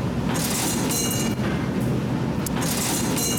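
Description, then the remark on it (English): A subway train clatters along the rails in a subway station with a steady, loud metallic rumble and bright screeching hiss, continuous, with no voices. “Let's go down into the subway station where you hear the strangest things.”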